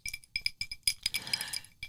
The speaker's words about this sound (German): es ist das Glas Martini, wo die Eiswürfel drin klappern. Und wenn ich davon ein Schlückchen nehme, es ist einfach für mich Lebensfreude.